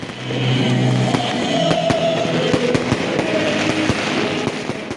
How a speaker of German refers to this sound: Menschen in Donetsk feiern, schwenken Fahnen und brennen Feuerwerk ab. Sie bejubeln die Anerkennung ihrer selbsternannten Volksrepubliken Donetsk und Luhansk durch Russland.